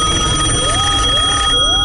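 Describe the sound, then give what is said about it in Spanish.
An old home landline telephone bell rings loudly and continuously, a bright sustained ringing tone with a slight repeating wavering, with no talking over it. “¿Recuerdas el antiguo teléfono de casa y su clásico timbre?”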